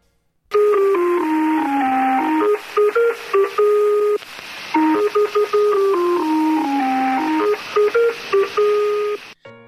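A shortwave numbers-station signal plays a repeating electronic melody of clear synthesized tones stepping down and back up, over a steady hiss of radio static, loud and with no voices.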